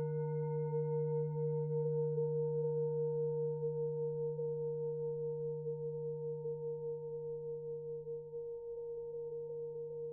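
A meditation gong rings out alone in a long, steady resonant hum, its deep fundamental and bright overtones sustaining evenly and fading only slightly over ten seconds, with no voices.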